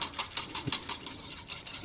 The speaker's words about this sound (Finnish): Ja tämä on nyt just 42 asteista, mikä se pitää olla. Laitetaan maito tänne ja sitten ruvetaan sekoittamaan. Sekoitetaan se sinne heräilemään.